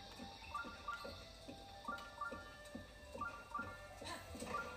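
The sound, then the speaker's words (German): Steady, rhythmic horse hoofbeats and snorting from a video game trot along at a moderate pace, with bright chiming game music playing alongside and no one talking. “Sorry, mein Pferd ist ein bisschen ungestüm.”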